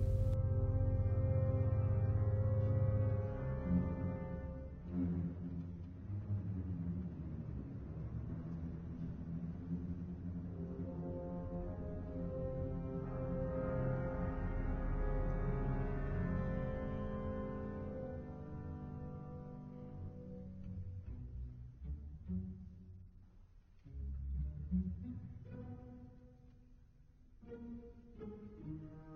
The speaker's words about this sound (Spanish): El título de esto es Also Sprach Zarathustra y creo que es alemán y es de Richard Strauss.